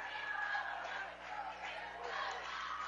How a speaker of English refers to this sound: And the folks wearing red now making the noise.